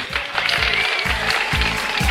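A crowd applauds steadily, a dense, loud wash of clapping that holds for about two seconds, with a soft rhythmic low thump pulsing underneath.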